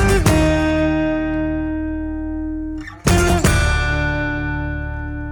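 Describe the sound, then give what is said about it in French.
An acoustic guitar plays Beethoven's Fifth Symphony, striking bold, dramatic chords, each ringing out and slowly fading before another sharp burst of notes lands; fairly loud, with no voices. “à la guitare par Marcin Patsralek”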